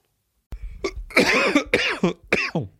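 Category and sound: human body sound, coughing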